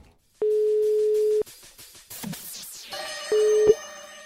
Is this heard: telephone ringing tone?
yes